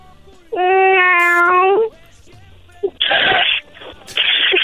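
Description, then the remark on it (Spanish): A person, asked to make the sound of a cat, imitates a cat with a single loud, drawn-out meow, followed by two short, breathy, hissing bursts. “haz el ruido de un gato.”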